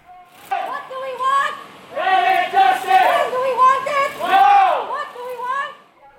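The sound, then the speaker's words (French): A group of voices chants together loudly in sustained, rising and falling phrases, activists chanting at a Youth for Climate mobilization, with crowd noise around them. “que vous venez d'entendre en pleine mobilisation.”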